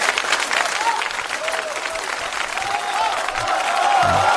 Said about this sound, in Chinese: 我觉得这个时候我们应该给他十秒钟的掌声啊！谢谢，谢谢，谢谢啊！